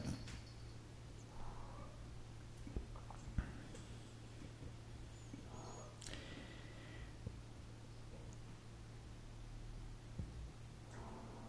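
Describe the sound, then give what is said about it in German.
A cat named Katablecki meows faintly a few times in the background in Manschnow, short soft calls scattered over a low steady hum with occasional small clicks and no talking. “Ja, im Hintergrund hört ihr Katablecki, der mauzt schon wieder.”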